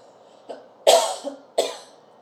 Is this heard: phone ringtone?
no